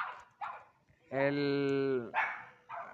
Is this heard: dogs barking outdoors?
yes